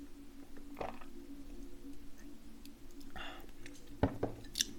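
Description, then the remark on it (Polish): A drink being sipped: a couple of soft slurping bursts, then small clinks against a glass, all fairly quiet over a low steady hum, with no talking. “teraz Łyk napoju”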